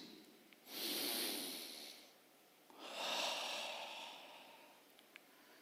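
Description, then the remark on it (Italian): A voice imitates God loudly sniffing the sacrifices burnt on an altar: two long, breathy inhalations through the nose, each lasting over a second with a short pause between, with no talking. “Dio annusa l'onore.”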